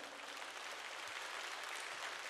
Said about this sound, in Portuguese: Dá um glória a Deus, aplauda Ele, aleluia.